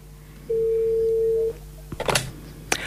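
A telephone dial tone as a call is placed from a studio: one steady, clear electronic beep lasting about a second, fairly loud, followed by a few sharp clicks and brief handling noises.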